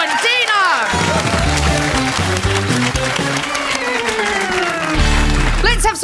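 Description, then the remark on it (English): A crowd applauds steadily with some whoops and cheers, while a bouncy musical sting with a deep bass line plays over the clapping throughout. “Give them all a huge round of applause.”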